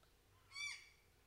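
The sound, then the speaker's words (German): A single short, harsh squawk from a real parrot circling overhead rings out on a hot evening as the sun begins to set, raspy and harmonic-rich, rising quickly and fading within a fraction of a second against a faint background hum. No one speaks. “Es ist heiß, über uns kreisen die Papageien. Ja. Das, was ihr im Hintergrund hört, dieses Quack, Quack.”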